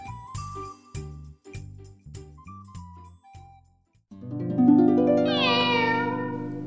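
A quick run of bright, tinkling bell notes plays for a few seconds, then a loud, drawn-out meow from a black cat rises and trails off, with no talking.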